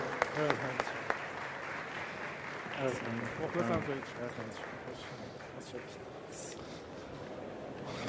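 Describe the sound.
An audience applauds steadily for several seconds to welcome an interview guest. It is a dense wash of many hands clapping, with a few sharper claps at the start, while voices talk underneath.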